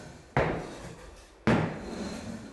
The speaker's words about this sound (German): Ja, wer klopft da? Da klopft doch einer. Wer hat denn noch so geklopft? Da!